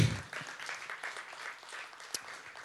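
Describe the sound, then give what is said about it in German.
A crowd claps steadily, a dense wash of many hands at moderate volume, with one sharper clap standing out near the end. “Ihr dürft gerne klatschen.”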